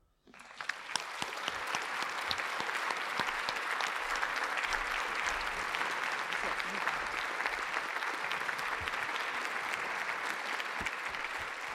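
Sustained audience applause, a dense, steady patter of many hands clapping that starts abruptly and holds at an even, fairly loud level throughout, with no talking over it.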